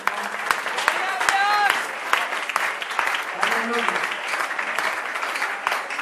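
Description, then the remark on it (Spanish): An audience applauds the Lord loudly and steadily for several seconds, a dense wash of clapping, while a voice shouts out over the noise. “Un aplauso fuerte a al Señor.”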